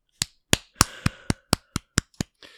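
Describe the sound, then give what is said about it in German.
One person claps their hands in a steady run of about nine sharp, bright claps, roughly every quarter second, with the last one softer. No one speaks. “Ich habe jetzt einmal hier mit applaudiert, damit die Leute äh, wissen, was zu tun ist, die hier zuhören.”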